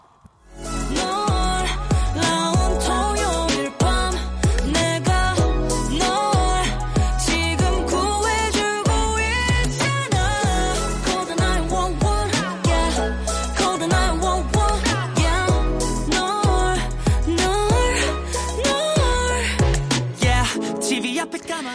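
A pop song plays loudly and steadily throughout, driven by a punchy, regular beat with deep bass hits and bright layered synths and vocal-like melodic lines over the top.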